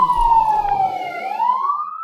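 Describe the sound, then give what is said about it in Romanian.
A fire truck siren wails loudly and steadily, its pitch dipping slightly and rising again over a couple of seconds, heard on its own without any talking. “Da, au plecat pompierii de la tine din cameră.”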